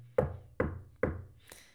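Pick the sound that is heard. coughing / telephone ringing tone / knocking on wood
knocking on wood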